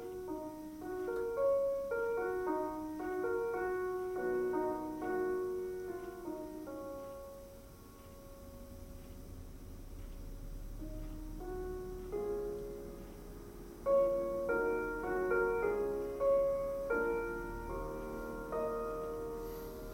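A gentle solo piano piece, Debussy's Preludes Book 1 'The Girl with the Flaxen Hair', plays from a recording, slow melodic lines over soft chords, easing quieter midway before swelling again, with no voices throughout.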